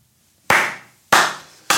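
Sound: hand clapping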